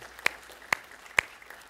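Three sharp, separate hand claps spaced evenly about half a second apart, fairly faint, like scattered applause from a church audience that never builds into a full round.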